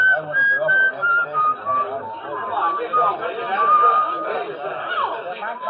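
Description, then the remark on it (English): Someone whistles the tune Yankee Doodle in a train car, a thin, steady melody in short stepped phrases, heard beneath a continuous murmur of people chattering. “And then I remember I'd been hearing that whistling right along and didn't notice it.”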